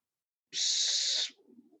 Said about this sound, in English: Is it the the owl that won't shut up?